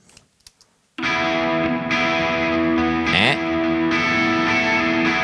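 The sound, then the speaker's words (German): A few soft taps, then a distorted electric guitar chord, panned left and sent at full level to a reverb bus, rings out loud and sustained with a reverb-washed tail on the left side, briefly swelling with a quick pitch sweep before settling back into the steady drone. “Das heißt, volle Pulle vom Signal wird dahin geschickt. Dann hören wir jetzt, dass der Hall”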